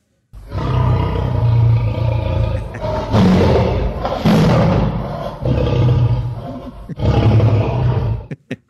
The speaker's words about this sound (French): c'est le lion qui, qui rugit, hein?